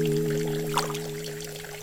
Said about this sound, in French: Elle avait ouvert tous les robinets. Les éviers débordaient. La cuisine ressemblait à une piscine. Il y avait de l'eau partout. Et Dima, pieds nus, était en train d'y verser tous les paquets de gros sel qu'elle avait trouvés